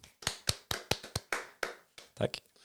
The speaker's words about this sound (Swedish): En applåd eller? Mm.